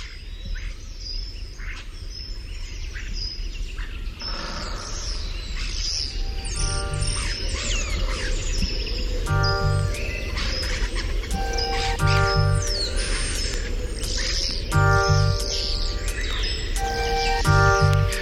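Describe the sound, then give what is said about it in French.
A flock of starlings chirps and chatters nonstop, a dense tangle of shrill overlapping calls, with buzzy harmonic whistles recurring every few seconds. No one speaks. “T'entends les tourneaux”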